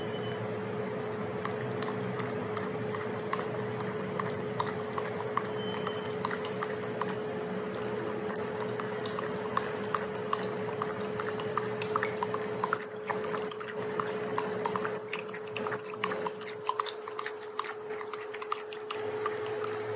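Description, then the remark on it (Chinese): A red (brown) Shiba Inu named Ocha laps water given by its owner in a rapid, steady stream of wet slurping clicks that keeps going for the whole stretch, with a faint constant hum underneath and no voices. “主人喂它喝水的声音，嗯。”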